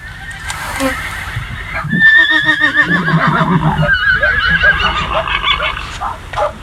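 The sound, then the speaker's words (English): A horse whinnies loudly, a shaky, high neigh repeated a couple of times over a few seconds, with softer snorting and rustling in between. “And goodbye from the horses, too.”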